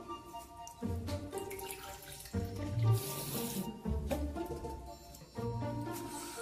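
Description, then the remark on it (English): Water runs steadily from a tap into a sink to refresh the water, a continuous splashing flow that shifts in tone as the stream changes, with no voices over it. “Let's do a refresh.”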